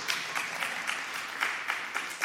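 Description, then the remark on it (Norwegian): An audience breaks into steady applause, many hands clapping in a dense, crackling wash that holds an even level throughout, with no voices heard over it. “Det fortjener egentlig en applaus, men jeg skal ikke be om han.”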